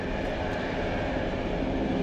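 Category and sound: vehicle, train passing by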